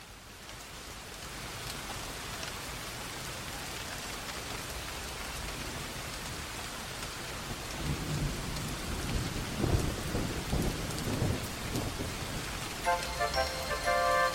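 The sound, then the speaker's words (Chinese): Heavy rain hisses steadily throughout, with deep rolls of thunder rumbling underneath in the second half, growing louder toward the end. No one speaks. “雨好大， 超大 啊，是吧？”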